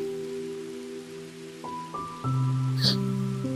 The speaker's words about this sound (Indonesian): tentang hujan yang tak kunjung redah, dan suasana yang datang untuk menemani.